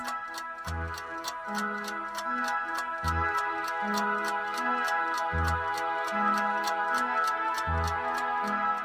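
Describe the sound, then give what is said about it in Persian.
A steady, rapid clock tick-tock repeats evenly throughout, crisp, layered over a sustained musical backdrop with low bass notes every couple of seconds. No one speaks. “تیک تاک ساعت این بار من رو به شنیدن پیام دیگه ای از نگان نزدیکتر میکرد.”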